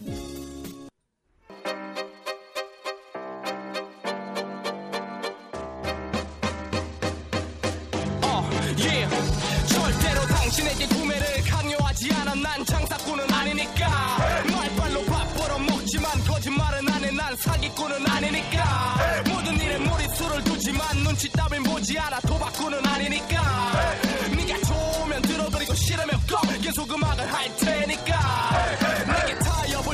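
A hip-hop song plays loudly, opening with a sparse, choppy intro before a full, driving beat kicks in around a few seconds later and continues steadily to the end.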